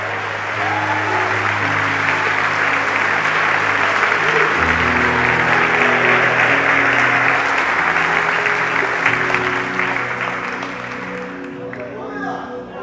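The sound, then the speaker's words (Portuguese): A church audience breaks into sustained, loud applause during a sermon, lasting several seconds, a dense wash of clapping over a low sustained musical drone, tapering slightly toward the end. “Alguém para dar um aplauso, dar um glória, receber.”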